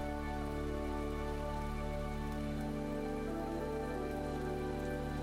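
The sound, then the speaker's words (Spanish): Steady rain falls on the ground in a continuous, even patter, moderately loud, with a low background hum and no voices. “Enfócate en el sonido de la lluvia”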